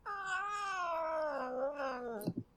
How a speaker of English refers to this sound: She might meow occasionally because she's a little shithead kitten.